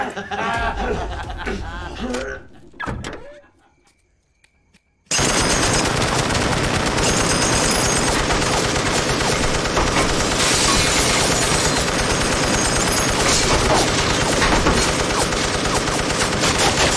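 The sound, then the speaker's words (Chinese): Brief voices and a short lull give way to a sudden, sustained burst of rapid machine-gun fire from a gun in the back seat of a car, set off by pressing a car key. It rattles on loudly and continuously for over ten seconds, sweeping down Jack's gang. “车后座的机枪立刻启动，一阵突如其来的疯狂扫射，将毫无防备的杰克一伙全部扫死。”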